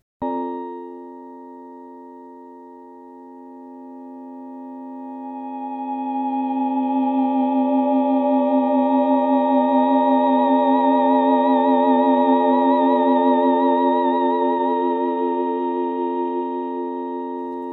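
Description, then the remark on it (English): A sustained synthesized electronic complex tone, with frequencies in the audio band below 20 kilohertz and rich, stacked harmonics, swells after a few seconds, its upper partials shimmering and shifting in a slow, animated way throughout, with no voices. “And uh, it proved to be and remains the most economical way to produce complex tones that have a kind of internal dynamism which is so attractive to the ear.”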